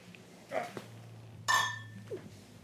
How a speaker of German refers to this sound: Ja, ja ich würde sagen, wir äh, stoßen mal an.